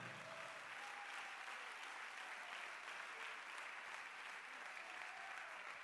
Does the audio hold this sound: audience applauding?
yes